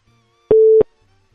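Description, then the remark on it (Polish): A single short electronic tone of an incoming phone call, a steady mid-pitched beep lasting about a third of a second, loud, with quiet stillness before and after and no talking. “O, mamy telefon.”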